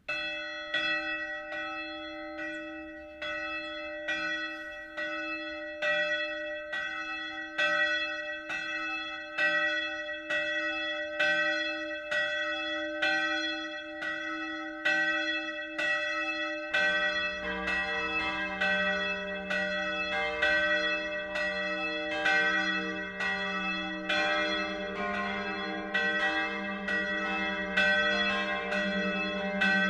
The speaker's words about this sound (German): BR Heimat, 12 Uhr läuten. Es ist 12 Uhr. Das Mittagsläuten kommt heute von der katholischen St. Stephanuskirche in Wasserzell, einem Ortsteil der mittelfränkischen Hopfenstadt Spalt.